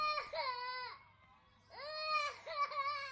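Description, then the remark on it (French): A young girl cries after falling while running in a park, in two loud wailing bursts, the second breaking into sobbing catches, with a short pause between them. “… sèche ses larmes”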